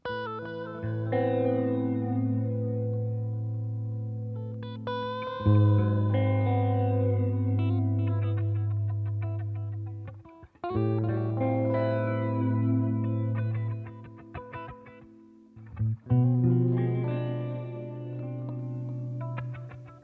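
A song played on heavily effects-processed guitar, with distorted, chorused tones and echoing reverb over a steady low drone, loud and continuous with a few brief breaks and no voices.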